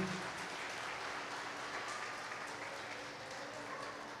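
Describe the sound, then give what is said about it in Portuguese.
A church audience applauds Jesus steadily, a dense wash of many hands clapping at once that holds at an even level throughout, with faint voices mixed into the crowd. “Aplaude Jesus mais uma vez.”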